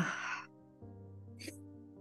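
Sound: deep breath being taken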